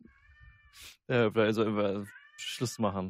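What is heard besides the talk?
cat meowing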